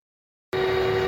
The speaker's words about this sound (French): Dans les rues d'Ottawa, le bruit assourdissant des klaxons. Depuis fin janvier, le centre-ville est envahi par des camions.